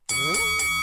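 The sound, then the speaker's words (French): A bright bell rings out with a sharp strike and a sustained, shimmering tone that carries through the whole short moment, fairly loud, with some wavering lower sound mixed in. “Ah, ça, c'est une sonnette.”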